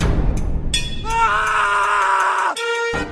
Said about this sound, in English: You see, that scream means only one thing, everybody. It's random acts of irrational annoyance.